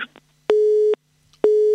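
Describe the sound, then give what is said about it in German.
A telephone busy signal as a radio show's call to a guest travelling by car fails to connect: two steady mid-pitched beeps, each lasting under half a second with a short silent gap between, loud and clean with no one talking. “Ich glaube, Gerald ist mit dem Auto unterwegs und äh, da werden wir gleich nochmal anrufen, jetzt hier beim Gerald Fleischacker.”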